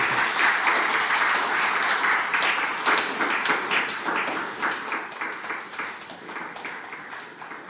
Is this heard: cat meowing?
no